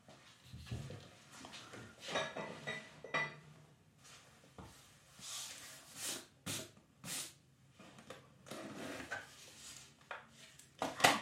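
Dishes clink and clatter as they are handled, with irregular knocks and scrapes. Some contacts are sharper and louder than others, and no one speaks.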